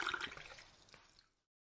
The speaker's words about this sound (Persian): یه شیشه اسکاچ نصفه و یه بطری آب گازدار از توی یخچال برداشت و از هر کدوم حدود سه اونس توی لیوان ریخت